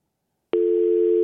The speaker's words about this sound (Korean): 어, 뭐야, 이게. 통화 중 대기 아니에요?